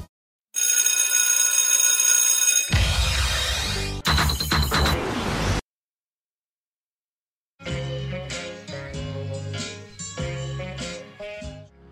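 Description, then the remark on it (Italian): Fantozzi's loud alarm clock bell rings continuously for about two seconds, then cuts into a harsh clattering crash; after a short silence, music starts. “Per arrivare a timbrare il cartellino d'entrata alle 8.30 precise, Fantozzi, 16 anni fa, cominciò col mettere la sveglia alle 6 e un quarto.”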